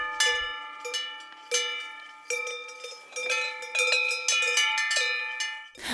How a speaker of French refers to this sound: Un son lointain. Ça me fait voyager. Le moment le plus signifiant, c'est quand je lis un livre chez moi et qu'il pleut. J'ai l'impression d'être à la montagne avec toutes ces cloches.